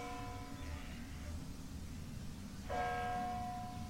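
Church bells ring out with sustained, layered tones, one clear strike fading, then a fresh louder strike near the end, heard alone with no talking over a low rumbling background.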